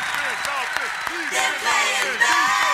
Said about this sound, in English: If you don't understand what that is, keep clapping!